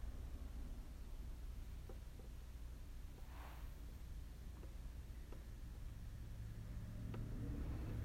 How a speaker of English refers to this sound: You can hear the traffic from the road really well too, that's a problem.